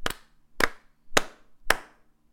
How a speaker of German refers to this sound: Und wir klatschen uns ein in 1, 2, 3 and 4.